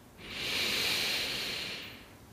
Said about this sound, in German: Und wir atmen gemeinsam wieder ganz, ganz tief in den Bauch ein.